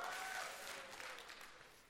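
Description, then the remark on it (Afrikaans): A round of hand clapping from a group, a dense, steady patter of many claps that stays fairly loud and gradually eases off, with a few brief high tones at the start. “Ja, yeah, ek gee vir my hande klap.”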